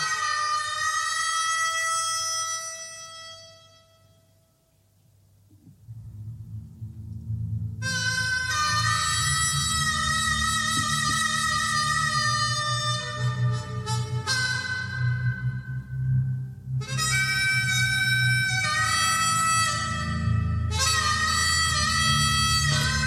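A lone harmonica plays long, wailing notes, then bass and drums come in and the harmonica keeps soaring over a steady rock groove, loud and close.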